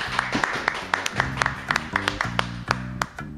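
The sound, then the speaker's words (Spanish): A small round of applause in a studio, sharp individual claps landing in a loose, uneven rhythm, with a low humming tone or murmur running underneath. “Aplausos, sí.”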